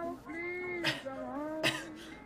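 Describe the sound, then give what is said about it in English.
Two short, sharp coughs about a second apart, breaking up a stretch of drawn-out, hummed vocal sounds. “um, that cough was really loud.”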